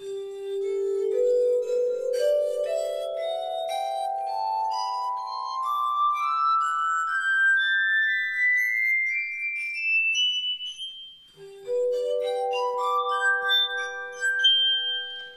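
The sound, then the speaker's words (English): Tuned wine glasses ring out in a slow rising scale of pure, sustained tones, climbing step by step, then a second ascending run begins after a brief break. No one speaks. Played by Robert Tiso in Pontedera, Italy, on an array of water-tuned wine glasses on a small table, an instrument invented by Richard Puckridge from County Monaghan; slightly out of tune. “An array of wine glasses on what looks like a small table.”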